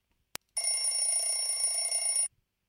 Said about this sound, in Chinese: 小袋鼠把闹钟扔到床底下。让你每分钟都是晚上，看你还叫不叫？第二天清晨，床底下的闹钟依然准时大叫。